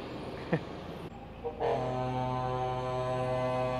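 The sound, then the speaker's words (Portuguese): A truck's air horn blares in one long, steady, loud blast, starting after a moment of road rumble and holding to the end. “Deixa o caminhão passar aqui, ver se me ajuda, né?”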